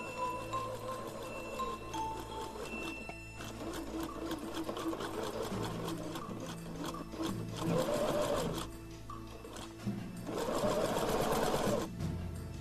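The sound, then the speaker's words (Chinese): A sewing machine runs steadily for the whole stretch as pieces of a fur coat are sewn into a bear costume, a dense mechanical whir with a rapid rattling rhythm that surges louder in a few bursts. No one speaks. “然后就照着图画书上大熊的样子，在缝纫机上忙活起来。”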